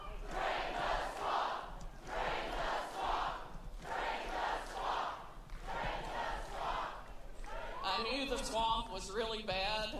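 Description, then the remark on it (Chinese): A large crowd chants "drain the swamp" in loud, rhythmic bursts that repeat roughly every second and a half, then a single voice begins speaking over the fading crowd noise. “民众大喊“榨干沼泽”。”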